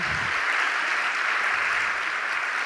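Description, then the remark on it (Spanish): A crowd claps steadily, applauding the Lord, a dense wash of many hands applauding at an even level throughout, with no voices standing out. “Los que lo creen, denle un aplauso al Señor.”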